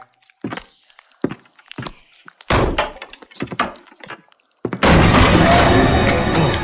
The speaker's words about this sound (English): Kick the door open